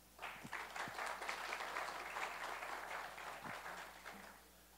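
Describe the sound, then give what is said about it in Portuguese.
An audience at the Centro Universitário da FEI breaks into sustained applause as the host university rector is invited to give a welcome speech. A dense wash of many hands claps at a steady level for several seconds before tapering slightly at the end. “Uma salva de palmas.”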